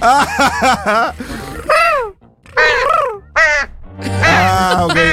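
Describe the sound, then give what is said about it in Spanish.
A bird calls loudly, giving a quick series of harsh, cawing cries with short pauses between bursts, then a longer drawn-out call at the end. “¿Qué es eso? Pájaro,”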